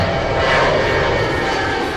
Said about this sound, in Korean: 한 번 더요. 비행기 소리. 네.